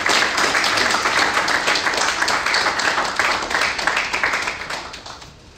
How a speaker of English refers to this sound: And so I want to honor him today. So I'd like you, Mr. Mwampembwa, please come forward. Please clap for him.